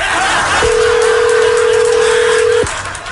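A single steady telephone dialing tone holds for about two seconds, a flat, mid-low hum that starts and stops with a click, over a faint background hiss. Nobody speaks.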